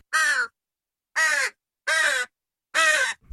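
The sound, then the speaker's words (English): A crow caws four times in a steady rhythm, each harsh, raspy call loud, separated by brief silences, with no other sounds around it. “Should we hear the crow?”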